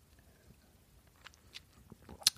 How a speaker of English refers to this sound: That's the Piper Heidsieck Brut Non Vintage. That's what I'm drinking. And I'll take a sip Cheers, everybody.